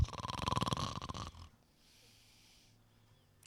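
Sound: person imitating snoring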